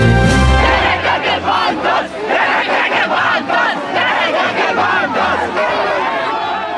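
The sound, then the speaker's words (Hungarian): A large crowd of protesters at a street demonstration shouts together in loud, rhythmic bursts, voices massed, with a continuous roar of many people underneath and no clear individual speech. “Miközben az utcákon is zajlik az erődemonstráció”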